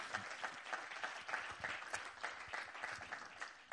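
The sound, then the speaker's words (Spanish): An audience applauds Jesus Christ steadily, many hands clapping in a dense, continuous patter at a fairly even level for several seconds, with no voices standing out. “Del otro aplauso a Jesucristo.”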